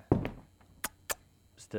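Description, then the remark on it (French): A heavy wooden crash as a chair is thrown and slams into a wall, followed by a few sharp, clattering knocks of broken chair pieces hitting hard surfaces, with brief voice sounds. “je, parlais de ramasser les morceaux de chaises que vous venez de pitcher contre le mur.”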